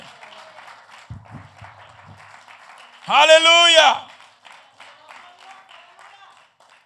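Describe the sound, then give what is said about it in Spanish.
An audience gives loud applause to the Lord, clapping steadily throughout in a dense crackling applause, while one loud voice shouts out for about a second in the middle, rising above the clapping. “¿Cuánto le da un aplauso fuerte al Señor que Él vive para siempre?”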